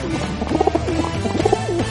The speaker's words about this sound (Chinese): 猫洛克摘下了自己的魔术帽子，挥舞了起来。扑棱扑棱，从魔术帽里飞出了一只鸽子，鸽子嘴里衔着一个怀表，停在了猫洛克手上。